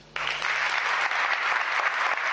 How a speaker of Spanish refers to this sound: Una larga ovación sirvió de agradecimiento por parte del pueblo de Burgos al que ha sido su pastor en el último lustro.